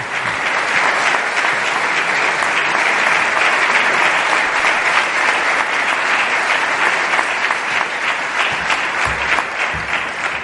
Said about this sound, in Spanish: Vaya para todos ellos nuestro agradecimiento en forma de cariñoso aplauso.